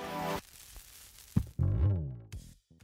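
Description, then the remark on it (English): Faint, steady vinyl record hiss fills a short quiet gap between the end of a song's intro and the start of its first verse, then a loud, harmonic musical passage comes back in over it. “And then there is the vinyl hiss that yes. you can hear really clearly in the sort of gap right between the end of that intro and the start of the first verse.”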